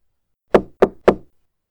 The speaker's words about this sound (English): The evening of the fifth day found him lying draped face down across his bed, in only his breeches, trying to think of nothing, when the knock came at his bedroom door.